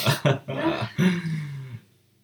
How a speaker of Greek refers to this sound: Φτέρνισμα που μοιάζει με βήχα.